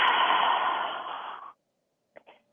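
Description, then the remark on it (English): An audible breath: air drawn in through the nose, followed by a long, airy sigh passively released through the mouth, a conscious continual breath in a breathing exercise, fading out into silence before a couple of brief soft breath sounds. “We'll do 50 of those, and then we'll do 10 conscious continual breaths, which is an intentional inhale through your nose and then just a passive release.”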